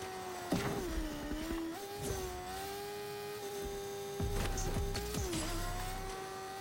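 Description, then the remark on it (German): A player rides a motorcycle in a video game: the engine drones steadily and revs up and down, its pitch dipping and rising, with a few sharp impact or skid noises scattered throughout. No talking. “Ey, wie sprinte ich mit dem Motorrad?”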